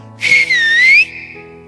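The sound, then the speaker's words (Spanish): A single sharp human whistle, loud, rising then dipping in pitch for about a second as a signal call for help, with no talking around it. “Pero si a mí me están ganando, te voy a chiflar también.”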